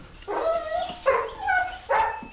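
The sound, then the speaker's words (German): A dog barks three times in quick succession, each bark drawn out and slightly whiny, loud with short pauses between them and no one talking. “Der lief bellend und geifernd mit gefletschten Zähnen wie ein hungriger Wolf hinter dem Fahrrad her.”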